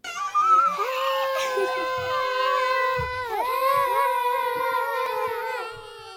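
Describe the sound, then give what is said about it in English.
A long, drawn-out howling yelp from a single voice, loud, its pitch wavering and sliding for about six seconds before trailing off. No talking, just the call on its own. “So he decides to call on them with a leafy yelp.”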